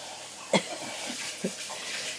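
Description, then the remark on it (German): Starchy water being squeezed out of potato dough for dumplings, pressed again with a little more pressure each pass: two short, wet squelching pops about a second apart over a soft, steady background hiss, fairly quiet. “presse es wieder und natürlich braucht es auch jedes Mal so ein bisschen mehr Druck.”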